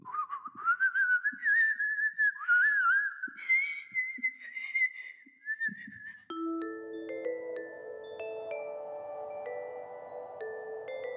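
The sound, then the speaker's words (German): A person whistles a warbling tune imitating a little bird for about six seconds, clear, then it gives way to soft, sustained chiming tones. “war jetzt äh, sehr schön gepfeift.”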